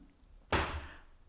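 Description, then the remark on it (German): The speaker's chair gives a single sudden crack-like creak under their weight, fairly loud, with a low thump that fades over about half a second. No one speaks. “Oh, das war mein Stuhl.”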